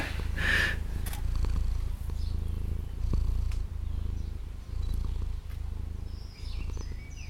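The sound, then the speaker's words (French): A cat named Diesel purrs, a steady low rumble that swells and eases in a slow breathing rhythm, with faint chirpy sounds in the background and no talking. “m'as dit qu'il s'appelait comment ce chat Diesel.”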